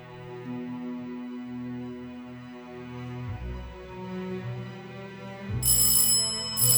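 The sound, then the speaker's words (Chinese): Low, sustained musical tones hum for several seconds, then a shrill front-door bell suddenly rings loudly in two rapid, insistent bursts at the end. No one speaks. “前门的铃声急促的响了起来”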